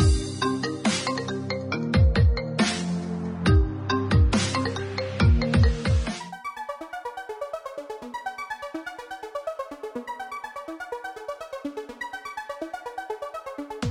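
A telephone rings with a bright, repeating electronic melody that plays steadily for several seconds, preceded by a burst of loud, punchy percussive hits with falling tones. No one speaks.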